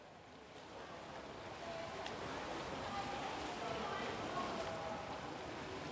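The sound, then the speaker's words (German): Indoor swimming pool ambience at the Schwimmoper in Paderborn: a steady, echoing wash of splashing water and indistinct voices, continuous and even throughout, with no clear foreground sound. “Für die heutige Folge habe ich mich dem schlechten Wetter angemessen an einen tropisch warmen Ort zurückgezogen, nämlich äh, der Schwimmoper und werde euch heute was über die Paderborner Bädergeschichte erzählen.”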